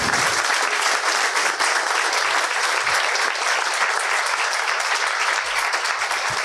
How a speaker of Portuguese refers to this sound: Eu peço a vocês, então, mais uma vez, uma salva de palmas